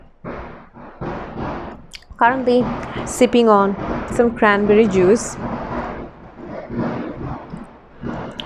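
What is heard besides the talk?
fireworks exploding outside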